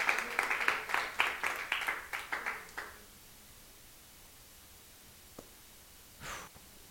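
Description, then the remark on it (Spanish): An audience bursts into applause for the Lord one morning, many hands clapping densely for about three seconds before tapering off into near silence, followed by a single soft click and a brief breathy rustle. “Un aplauso al Señor en esta mañana.”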